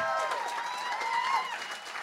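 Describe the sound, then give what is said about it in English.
An audience applauding the opening act at a comedy show, a dense, steady wash of clapping, with scattered cheers and voices rising over it throughout. “Let the opener hear it.”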